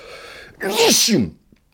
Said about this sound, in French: Je sens que je vais éternuer, ce qui sera déjà un, premier titre pour moi. Attention.